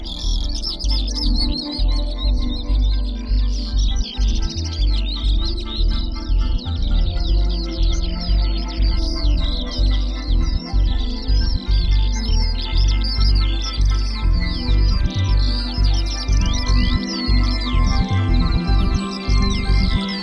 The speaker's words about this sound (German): Beispielsweise nimmt er Vogelrufe und Gesänge auf und mischt sie unter seine Musik oder übersetzt sie in Noten in elektronische Sounds. So klingt das dann.